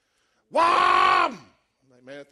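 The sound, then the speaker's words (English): A man's voice imitates a Chevrolet drag racing car revving in a garage: one long, loud, buzzing roar that rises and then falls away, followed by a shorter, quieter rev. “My uncle used to build drag cars, and you'd hear him all hours of the night revving it up in his garage.”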